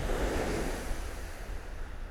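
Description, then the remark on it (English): Sea waves wash steadily onto a beach, a continuous rushing roar of surf with some wind noise. No one speaks. “Watching the sea, I could spend hours and hours here.”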